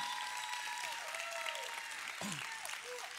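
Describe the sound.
Steady audience applause at a church gathering honoring a man called to the front, a dense wash of many hands clapping at an even level throughout, with a few whistles and cheering voices rising above it.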